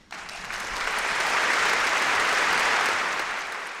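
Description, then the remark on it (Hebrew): A crowd breaks into applause, a dense, steady wash of clapping that swells quickly, holds for a few seconds, then begins to taper off. No one speaks. “אני חושב שמגיע לכם מחיאות כפיים.”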